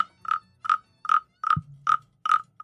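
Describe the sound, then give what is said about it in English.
A toy frog, a gift bought at the Washington D.C. airport, croaks in a steady run of about eight short, chirpy bursts, evenly spaced, with a thin, almost cricket-like tone and no talking. “it's supposed to be a frog, but it sounds more like crickets, if you ask me.”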